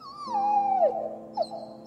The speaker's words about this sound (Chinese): 结果就在那天夜里，弟弟想要上厕所的时候，就看到大门有一只狗狗的身影。甚至，他还听到小爱生前的嘤嘤声。